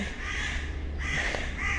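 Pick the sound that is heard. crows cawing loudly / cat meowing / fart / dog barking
crows cawing loudly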